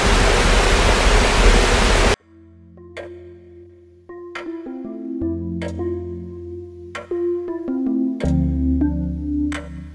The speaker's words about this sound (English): White noise is still quite uneven. It sounds almost like ocean waves breaking.